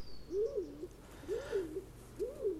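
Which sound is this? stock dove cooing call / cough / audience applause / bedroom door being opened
stock dove cooing call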